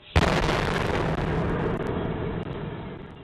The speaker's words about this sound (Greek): Μία και 29 ο μηχανισμό που βρίσκεται μέσα σε σακίδιο το οποίο είναι κρεμασμένο σε ένα κάγκελο έξω από την τράπεζα εκρήγνεται.